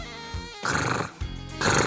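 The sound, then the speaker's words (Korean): Someone imitates the soft, purring snore that women make: voiced, throaty tones give way to two breathy, rattling snore sounds in quick succession, fairly loud and with no other talking. “여성분들의 코골이 소리는 갸르릉 갸르릉 걸잖아요.”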